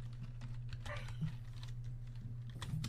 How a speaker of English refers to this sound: Princess Ruby has joined the game. Princess Ruby is typing a message.